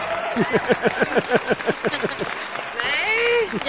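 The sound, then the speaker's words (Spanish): An audience claps in a quick, steady rhythm for a couple of seconds, each clap sharp and distinct, then the clapping gives way to loud whoops and cheering voices. “¡Aplausos, maldita sea!”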